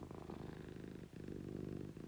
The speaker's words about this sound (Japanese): 本日も DJ チーがゴロゴロ言わしております今日の BGM も地位のゴロゴロになりそうですね